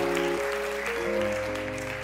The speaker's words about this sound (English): Yeah, let's clap for the Lord. Thank you.